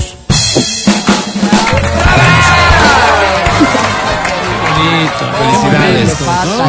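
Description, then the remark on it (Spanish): A loud, sustained burst of audience applause begins abruptly and carries on throughout, mixed with enthusiastic cheering, whoops and overlapping shouted voices from a large crowd. “Ahora, escucha este aplauso, por favor.”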